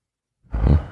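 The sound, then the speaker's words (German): After a moment of silence, a voice lets out a short, loud, gravelly roar, imitating a heavy delivery van's engine revving hard as the gas pedal is floored. It lasts about half a second and has no other talk around it. “Die Maschine des Vans brüllte auf und katapultierte das schwere Fahrzeug nach vorn.”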